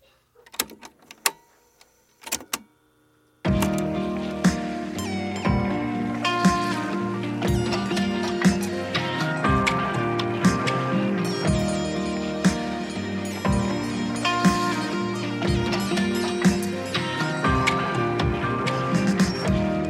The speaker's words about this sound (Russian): потому что это песня, которую он записал, на которой играет на гитаре